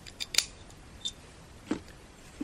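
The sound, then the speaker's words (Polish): An audio cable is plugged into a headphone jack, giving a few small, sharp clicks and a faint scrape spaced irregularly across a quiet moment with no talking. “Wkładam kabel do gniazdka słuchawkowego”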